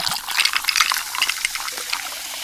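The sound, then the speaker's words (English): Fizzing of Pepsi Zero Sugar poured over ice into a glass, a dense crackle of tiny bursting bubbles that hisses steadily for a couple of seconds with no voices. “Hear all those deliciously fizzy Pepsi bubbles?”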